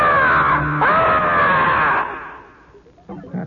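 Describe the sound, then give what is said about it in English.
A person voices a loud, drawn-out shriek imitating the Jersey Devil, holding the strained cry for about two seconds before it fades, followed by a brief bit of speech. “And then all of a sudden, without any warning, this thing leaves out a shriek. It just goes, ah!”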